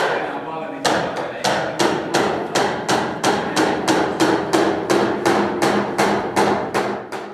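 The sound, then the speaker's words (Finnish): Steady hammer blows strike nails into a wooden birdhouse, about fifteen sharp, evenly spaced knocks in a brisk rhythm, each ringing briefly before the next, with no talking over them. “Laitetaan katto paikalleen vielä, niin tota, ehkä tuo yksi naula pitää.”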